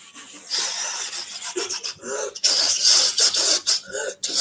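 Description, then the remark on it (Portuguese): Someone vocally imitates an inflatable tube man flapping, making raspy hissing and squeaky bursts in an uneven, fluttering rhythm for several seconds, with short pauses between gusts. “Como é que é barulho de bonecão?”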